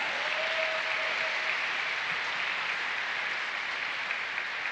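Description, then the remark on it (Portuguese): An audience at a church service applauds Jesus steadily, a dense wash of many hands clapping at an even level for several seconds with no voices standing out. “Eu acho que você pode aplaudir a Jesus por isso.”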